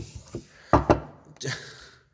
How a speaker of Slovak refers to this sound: Trikrát zaklopať, on zaklopal dvakrát.